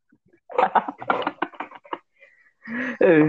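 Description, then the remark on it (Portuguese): A blue chair creaks and clicks in a run of short, uneven bursts as someone shifts their weight, ending in a louder, drawn-out squeak that rises slightly in pitch. “Cara, você tá dando pra escutar o barulho da minha cadeira, velho?”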